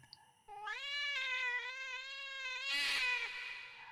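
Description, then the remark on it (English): A cat perched in a tree screams with all its might as a fierce dog threatens another cat below, one long, loud, strained yowl that holds steady for a couple of seconds, then breaks into a harsh, raspy screech before trailing off. No one speaks. “From her perch in the tree, Koma knew full well that Gon would not stand a chance against this fierce hound, and she screamed”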